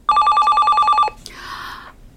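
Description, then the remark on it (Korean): A telephone bell rings in a loud, rapid trill of steady high pitch lasting about a second, then cuts off, followed by a brief, softer rasping noise. No one speaks. “아이 다 늦게 웬 전화야?”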